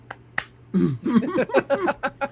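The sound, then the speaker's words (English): Two quick, sharp hand claps ring out, followed right away by people talking and laughing over a low steady hum. “Yeah, hand clap.”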